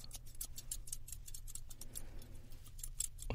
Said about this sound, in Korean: 그리고 이제 커트 가위로 리어드 하면서